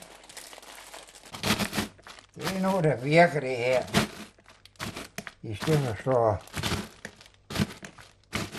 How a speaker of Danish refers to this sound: Nu tager jeg nogle marins og kommer i en pose der, som jeg knuser med, med kagerullen.